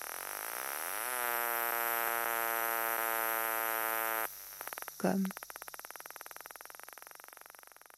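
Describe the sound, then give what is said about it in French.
Kenyan cicadas drone loudly, the sound made by the cymbal organs of their bodies, their buzzing rising into a steady harmonic whine that then breaks into a rapid, rhythmic ticking pulse, with one brief louder burst midway. “Alors, c'est étonnant, hein Vous avez entendu les cigales du Kenya, le bruit qu'elles font C'est fou, non Et alors, le nom de la partie de leur corps qui produit le bruit, vous avez trouvé C'est les cymbales.”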